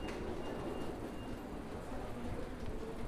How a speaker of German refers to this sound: Äh, ich bin gerade angekommen hier am Bahnhof in Siegen.